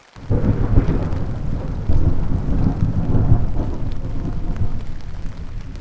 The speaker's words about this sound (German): Als wir die Gegenseite erreichten, war der Niesel zu Regen geworden und aus den Wolken grummelte es bedrohlich.